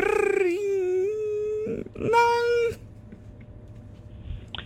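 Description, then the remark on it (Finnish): A voice imitates a recorder flute with two sustained, reedy tones, the first long and slightly wavering, the second shorter and louder after a brief breathy pause. “nokkahuilun matkimista”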